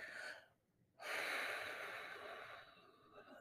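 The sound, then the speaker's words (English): A short, deep intake of breath, a brief pause, then a long, steady breath blown out through the mouth from the belly, core breathing during a meditation, an airy whoosh that slowly fades. No one speaks. “you hear that that blowing sound that's the sound that lets you know that the air is coming from your belly out through your mouth and so that's called core breathing”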